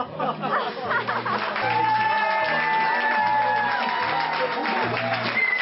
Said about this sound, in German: Ich bin mir sicher, diese Begeisterung der Zuschauerinnen und Zuschauer, ob groß oder klein, die kommt auch im Radio rüber. Standing Ovation für alle Schauspieler und alle Beteiligten an diesem Workshop.